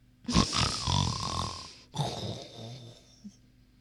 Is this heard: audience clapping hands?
no